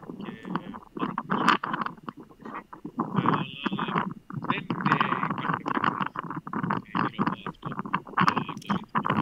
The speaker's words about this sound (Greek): τώρα δεν σε ακούμε καθόλου. Μάλλον φυσάει κιόλα. Ε, είναι ο αέρα, ναι.